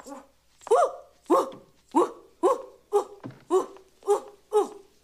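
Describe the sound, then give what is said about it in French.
A person, ordered to act like a dog, imitates a big dog barking, giving about nine loud, deep woofs in a steady, evenly spaced rhythm, with no other sounds. “Un gros chien. Wouf, Sautillez maintenant. Wouf, wouf,”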